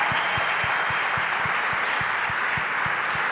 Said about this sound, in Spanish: Vamos. Vamos. Aplauda al Rey de Gloria.